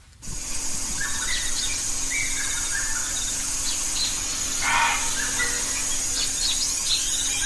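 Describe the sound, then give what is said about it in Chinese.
A single short, harsh muntjac bark breaks through steady cloud-forest ambience, with small birds chirping and twittering intermittently over a constant high insect hiss. “哎，就一声哦，哦，山羌啊， 山羌嘛，哈， 对啊，对啊，对啊，对啊， 啊，那个那个一开始那个小鸟，你听得出来吗？”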